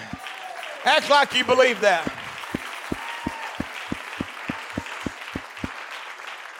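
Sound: audience clapping hands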